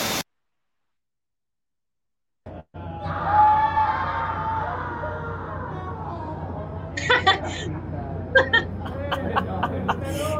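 A man screams in terror, loud, the cries rising after a brief silence and breaking into sharp, strained bursts toward the end.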